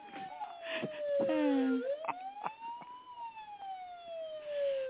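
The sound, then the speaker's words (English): A police siren sound effect wails continuously, its pitch sliding slowly down, rising again, then falling, loud, with a few brief noisy bursts in the background. “There it is. Pause. The police.”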